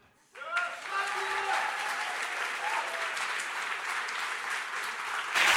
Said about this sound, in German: Und hm? bitte jetzt brauche ich auch nochmal einen ganz großen Applaus